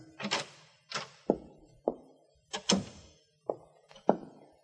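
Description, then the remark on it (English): A door is unlocked and opened with a series of solid thunks and clattering knocks, about eight in an uneven rhythm, with no voices. “Managed to get them on in the right order and made it to the door that had been locked before, but it wasn't this time.”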